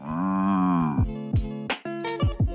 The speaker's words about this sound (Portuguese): produção, solta a vinheta do boi aí.